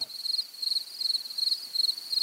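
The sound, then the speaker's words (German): A field cricket, one of the most common cricket species in Austria and nearly black in colour, sings alone in a steady series of shrill, high-pitched chirps, each a quick trill repeating several times a second, clear. “Wir hören den Gesang der Feldgrille, einer der häufigsten Grillenarten in Österreich.”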